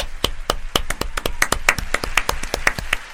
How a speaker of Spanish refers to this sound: aplaudimos nosotros también. ¿eh?